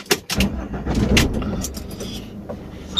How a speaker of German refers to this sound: Warum machst du jetzt den Motor an?